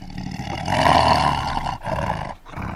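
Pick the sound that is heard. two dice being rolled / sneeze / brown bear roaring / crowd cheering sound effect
brown bear roaring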